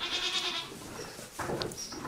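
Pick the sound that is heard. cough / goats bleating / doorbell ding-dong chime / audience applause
goats bleating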